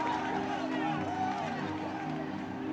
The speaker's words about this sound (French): les salariés se déchaînent. Certains s'étreignent, d'autres sautent, sourient et applaudissent.